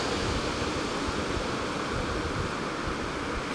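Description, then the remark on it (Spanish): A steady, full roar of sea surf washes over the whole stretch, a dense rushing noise with no clear pauses between waves and no voices. “Déjame un segundo que escucho el mar. Ojalá se escuche para ustedes.”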